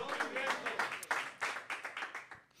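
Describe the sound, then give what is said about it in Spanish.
A crowd claps loudly and steadily in a dense burst of applause, with voices calling out among the clapping throughout, answering a preacher's call during a sermon for a loud round of applause. “Si tú lo quieres, dale un aplauso fuerte y diga conmigo rompimiento.”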